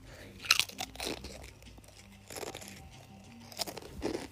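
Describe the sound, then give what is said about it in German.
Crunching of a crisp, extremely spicy chip being bitten and chewed, with a few sharp, crackly bursts spread over several seconds and no talking. “Ähm, ich muss jetzt einen Chip essen. Nicht wundern, das hört sich für euch vielleicht äh, nicht so an.”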